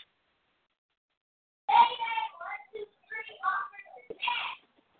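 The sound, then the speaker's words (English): A little kid's high-pitched voice yells out in the background in a few quick bursts for about three seconds, fairly loud, with silence before and after. “All right, now, I heard somebody in the background sound like a little kid.”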